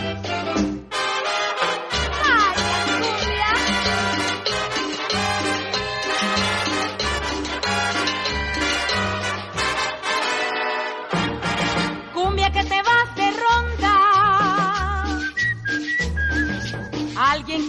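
A cumbia song played by a full orchestra, loud and close, with a steady bouncing bass rhythm, bright melodic lines and what sounds like whistling woven through the tune; no voices.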